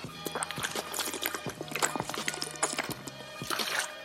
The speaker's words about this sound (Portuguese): É, teve gente achando que eu, é, que, é, que eu dei uma bongada quando eu tomei água. Não, não dei uma bongada, cara. Isso é, isso é água. Eu tomo água numa garrafa.